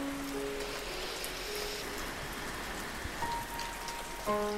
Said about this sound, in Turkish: Şimdi gece olmaya başladı. Hava karardı. Yağmur hala yağıyor muhteşemliğiyle.